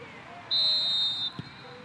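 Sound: referee's whistle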